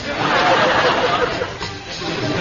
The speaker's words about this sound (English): the eastern sun wakes the temples and minarets that tower above the streets of the ancient city that is named after David, Jerusalem. Soon the streets begin to come to life, filled with the sound of running hooves, running feet, and running noses.